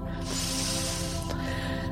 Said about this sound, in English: And now we're just going to take a lovely deep healing breath in through the nose and out through the mouth. Breathing in